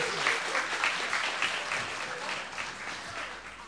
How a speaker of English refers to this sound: Well, thanks very much. Give our kings and queens a round of applause.